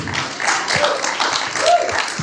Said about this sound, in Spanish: We just want to, uh, why don't we give Jesus a round of applause? How about that? Muy buenos días. ¿Por qué no le damos a Dios un fuerte aplauso?